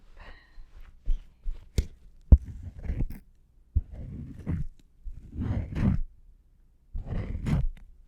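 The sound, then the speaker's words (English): Scraping strokes of a razor shaving through shaving cream, several short bursts interspersed with soft rubbing as the blade is wiped on a towel, with a few sharp clicks and no talking. “Okay, so I'm just gonna go in and then wipe on my towel.”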